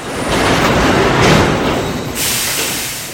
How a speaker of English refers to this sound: NUMMI stands for New United Motor Manufacturing Incorporated. A modern car plant, by the way, sounds a lot like a casino. The automated gear plays little songs to let you know that it's running